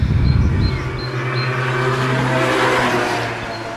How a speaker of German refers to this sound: Hier stehe ich gerade auf der Veranda und genau in diesem Moment fährt ein Roller vorbei.